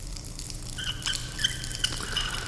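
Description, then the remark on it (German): Water sputters and drips irregularly from a shower head, with scattered bright drips and short bursts over a low steady rumble, fairly quiet. “Jetzt endlich duschen.”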